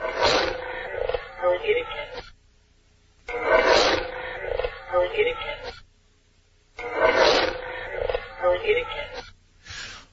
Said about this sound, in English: But you'll hear a growling and then a woman's voice directly after. A growling? Yes. Oh. And the oh. growling is anomalous. It is an EVP. It was. It, we didn't hear it at the time.